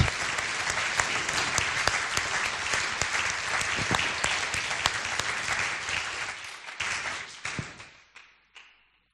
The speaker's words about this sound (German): Lass uns das einfach mal ausprobieren. Das ist Applaus für Gott.